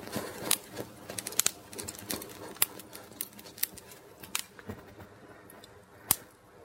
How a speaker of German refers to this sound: Ah, knistert, das Feuer schön.